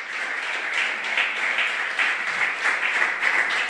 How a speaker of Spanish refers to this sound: Aleluya, dale un aplauso al rey.